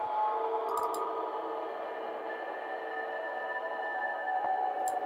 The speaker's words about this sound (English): so we got this drone here, which sounds like a guitar that's like just bending the ever loving crap out of the string.